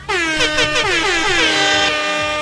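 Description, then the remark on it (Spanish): A loud, sustained air horn blast with a bright, brassy tone and slightly wavering pitch, holding steady for a couple of seconds with no one talking. “Ajá, deberías poner esa bocina cuando ahorita, a los importantes.”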